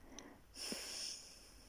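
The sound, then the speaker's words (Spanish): A single soft exhale through the left nostril while the right nostril is held closed during a breathing exercise, a breathy hiss lasting about half a second with a faint whistling edge, otherwise quiet with no talking. “Tomas aire por la fosa nasal derecha, inhalas, sostienes un momento, voy a cambiar y voy a tapar mi fosa nasal derecha y voy a exhalar, destapo izquierda y exhalo por la izquierda.”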